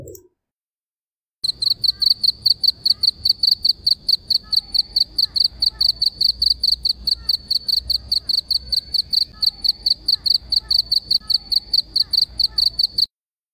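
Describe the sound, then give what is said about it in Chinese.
Crickets chirp as night falls after the afternoon, in a steady, rapid rhythm, a high, bright trill pulsing evenly with a low background hum underneath and no voices. “听，蛐蛐开始唱歌了。”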